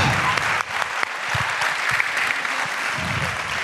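Steady, dense applause from an audience, a continuous wash of many hands clapping at once, loud, with no voices standing out over it.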